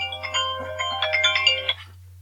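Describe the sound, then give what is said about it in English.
A mobile phone ringtone plays a bright, busy electronic melody of quick stacked notes for under two seconds, clear over a steady low hum, then cuts off. “That's my phone.”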